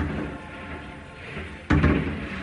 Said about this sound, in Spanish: Esta madrugada, sonido de fuegos artificiales cerca del hotel del Real Madrid.